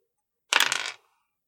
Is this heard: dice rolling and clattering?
yes